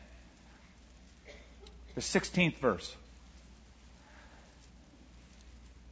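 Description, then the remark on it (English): A soft, steady rustle of many Bible pages being turned by an audience looking up Matthew chapter 10, faint and diffuse throughout, with a man's voice speaking briefly over it midway. “Love to hear those pages turn, by the way.”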